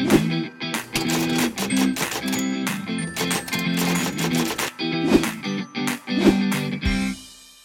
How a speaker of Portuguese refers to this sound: Roda a vinheta.